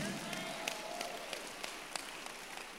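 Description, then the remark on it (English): An audience claps steadily, a dense wash of hand claps with a few sharper individual claps standing out, moderately loud with no voices clearly on top. “The Lord bless those who are clapping for him and they will have a testimony to share.”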